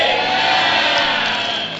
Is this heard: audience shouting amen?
yes